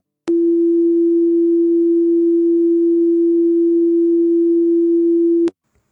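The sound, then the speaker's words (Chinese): A single steady pure fundamental tone, played to demonstrate overtones, holds at one low-mid pitch for about five seconds, loud and unwavering, then cuts off abruptly. No voices or other sounds accompany it. “我们先来听一下基础音。”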